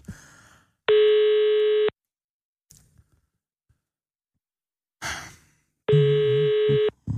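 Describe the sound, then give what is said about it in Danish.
A phone ringback tone buzzes twice, each steady, mid-pitched ring lasting about a second with a long silent gap between, as the call goes unanswered. Faint breathing and small rustles fill the pause. “Det tager måske heller ikke. så må du ringe til Carsten Hønge igen.”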